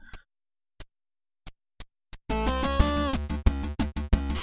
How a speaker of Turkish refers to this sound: Onu bir kısa dinleyelim. 8 bit chiptune ne mevzular.